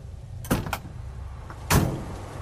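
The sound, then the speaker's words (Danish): A truck door clicks open with a couple of quick clunks, then a heavier slam follows a second later, over a steady low rumble with no talking, as the driver gets out of the truck to check the cargo hold. “Han går ud af lastbilen for at tjekke lastrummet.”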